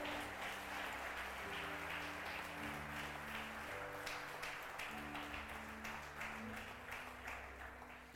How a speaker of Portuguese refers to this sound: Aplauda bem forte a Ele.